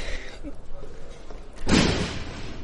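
A door slams shut once, loud, with a broad burst of sound and a brief rumbling tail after a stretch of quiet background noise, as someone heads out to the street.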